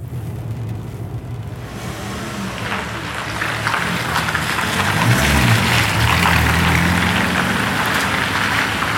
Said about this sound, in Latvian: Aizbrauc taksometrs ar diviem pasažieriem.